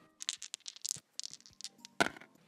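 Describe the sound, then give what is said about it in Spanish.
Dice are thrown and rattle and tumble in a quick run of small clicks, then land with a sharper knock and a brief final skitter. No voices. “Lanzamos los dados”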